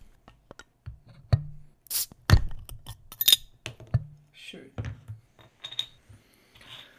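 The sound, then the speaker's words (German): A beer bottle, the fourth beer being tasted, cracks open with a short hiss, followed by glass clinking and clattering in several sharp, bright taps, with some handling noise between them. “Wir müssen erstmal zischen.”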